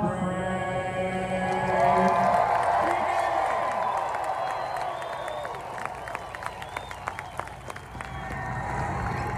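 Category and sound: crowd, rally crowd cheering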